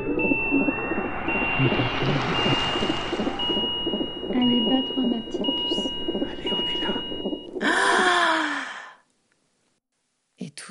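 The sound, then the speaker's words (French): A tiny premature newborn in an incubator whimpers in thin, strained little cries, breaking into a sharper breathy gasp near the end before falling silent. “d'entendre un gémissement et les bâillements à la corneille de la si petite bouche de …”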